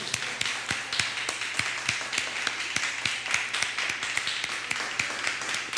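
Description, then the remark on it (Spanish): Steady applause with sharp, evenly spaced claps standing out over a dense wash of softer clapping, continuing at a brisk, regular pace without any voices. “Vamos a darle un fuerte aplauso a Gisela y a España.”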